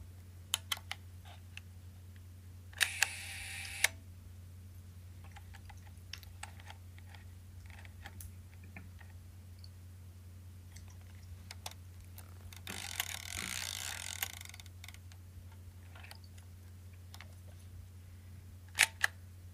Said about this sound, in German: Ich habe es jetzt gelesen, aber das Geräusch, das erste Geräusch ist das Aufklappen des Suchers. Das nächste ist das Transportieren des Films und dann wird fotografiert. Das ist eine Yashica Mat 124.